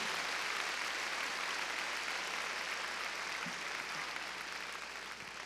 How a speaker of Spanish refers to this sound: A ver, démosle palmas fuertes a nuestro Señor, gloria a Dios. Muy bien.